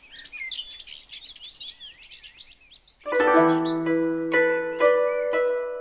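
A nightingale sings a fast, varied run of high warbling trills and chirps for a few seconds, then ringing music with struck, chime-like notes takes over and drowns it out.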